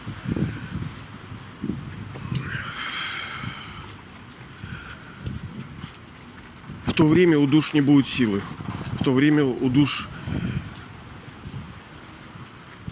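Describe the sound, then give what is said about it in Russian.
Steady low rumbling wind buffets the microphone throughout, a muffled roar that surges and dips while a man speaks over it outdoors. “я ветрено опять, но надо терпеть природа, обстоятельства нам не предоставят эксклюзивных и уникальных условий.”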